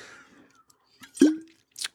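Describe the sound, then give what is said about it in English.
A quick sip and a single wet gulp of water, followed by a short breathy exhale, all fairly soft with quiet pauses around them and no talking. “Ah, just drinking water.”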